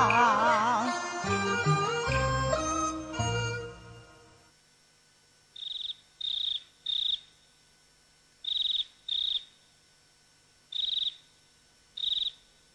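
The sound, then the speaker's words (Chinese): After a few seconds of music, fighting crickets chirp as they fight, in short, shrill bursts, high-pitched trills coming in irregular clusters of two or three with brief silences between. “哎，看看，他们斗起来了。”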